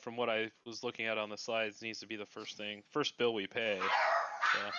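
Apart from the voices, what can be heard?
dogs barking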